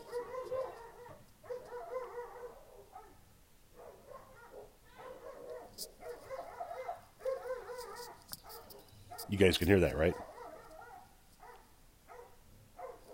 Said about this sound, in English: You hear the dogs barking?